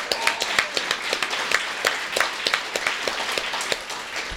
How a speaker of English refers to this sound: Well done, Dunedin, is all I want to say. Not bowing to the trolls. Give yourselves a massive round of applause.